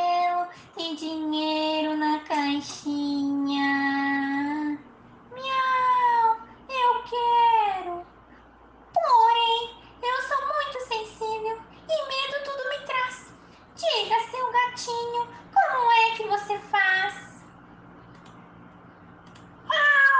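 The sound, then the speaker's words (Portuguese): A cat meows over and over, a series of drawn-out, pitch-bending cries in close succession, fairly loud, with short pauses between bursts and no talking. “Depois do cachorro veio passando um gato e a dona Baratinha perguntou: Quem quer casar com a dona Baratinha que tem fita no cabelo?”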